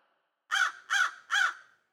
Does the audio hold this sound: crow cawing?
yes